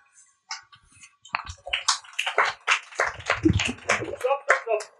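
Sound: audience clapping hands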